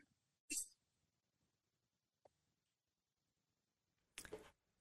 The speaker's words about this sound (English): We should have tested this ahead of time because it, the audio is just cutting out. And uh, when, when you come in, it sounds so good, and you're but it's in and out